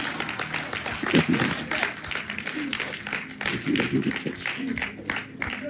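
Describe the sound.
A church audience claps hands for God steadily and continuously, a dense patter of many claps, with voices murmuring or calling out underneath.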